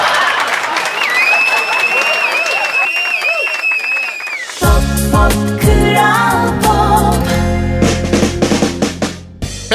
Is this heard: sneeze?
no